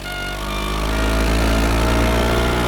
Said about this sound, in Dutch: Wat met die brommer. Schandalig.